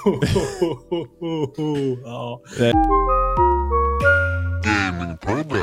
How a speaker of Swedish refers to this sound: Oj, en rap direkt.